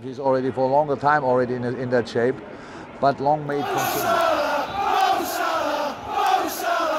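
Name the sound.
football fans chanting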